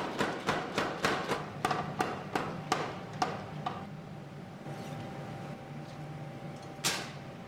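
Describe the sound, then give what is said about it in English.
A rapid series of sharp metallic blows from a spring hammer plating hot metal, warmed in the fire, to the approximate size of a hook, about a dozen strikes in a steady rhythm that slows and fades, followed by a low hum and one final clang. “Plate it under a spring hammer, and this gets it to an approximate size of the hook itself.”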